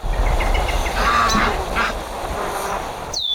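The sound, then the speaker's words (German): Several geese honk in overlapping, nasal calls over a steady low rumble, loud, with a brief high squeak near the end. “Zahlreiche Tiere wie Kühe, Pferde, Schafe, Hühner, Gänse und auch Wild müssen versorgt werden.”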